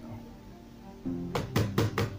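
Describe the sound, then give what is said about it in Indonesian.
Four sharp knocks on a door in quick succession, fairly loud, following a stretch of quiet low room hum. “Terus aja diketok itu pintu Akhirnya cengah juga kan Nah tolonglah buka”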